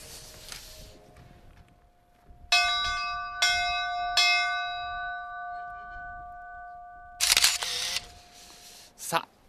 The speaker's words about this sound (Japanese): 私この旅立ちの鐘を鳴らします